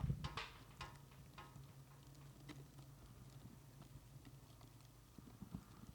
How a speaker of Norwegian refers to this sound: Vil du høre lyden av eh, flamme, kjære lytter? Her er litt eh, peis.